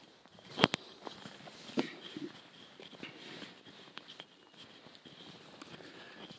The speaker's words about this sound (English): I'm walking in the woods in Ireland as I'm talking with you.